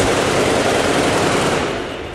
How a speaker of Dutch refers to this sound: er wordt heel veel in de lucht geschoten. Maar door mannen die duidelijk niet heel voorzichtig met de wapens omgaan.